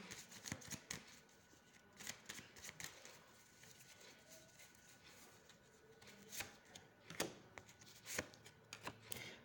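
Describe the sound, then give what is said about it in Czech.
Tarot cards being shuffled and laid out on a table: a run of quick, crisp riffling snaps and soft slaps, fairly quiet, with no one speaking. “Já ještě hodím další karty.”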